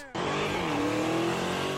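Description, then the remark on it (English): A car suddenly roars to life and burns rubber as a looter drives it off from a Dodge dealership in San Leandro, California, its engine revving hard over a loud, continuous, sustained screech of spinning tires. “That's a looter burning rubber as thieves have a field day at this Dodge dealership in San Leandro, California.”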